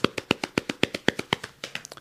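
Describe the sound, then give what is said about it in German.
Quick, even right-left hand taps on the thighs, about fifteen soft slaps in two seconds in a steady alternating rhythm, moderately loud with no talking. “Das ist auf jeden Fall 30, 40, 50 Sekunden lang klopfen, die Oberschenkel schnell, vor allen Dingen in diesem Tempo, ist auf jeden Fall hilfreich, weil es Stress,”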